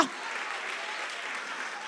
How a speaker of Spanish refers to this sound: Si hay alguien aquí que conoce al inmortal, que le dé un aplauso, que le dé un aplauso fuerte ahora.